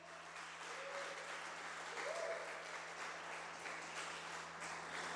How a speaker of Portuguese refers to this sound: Aplauda Jesus bem alto.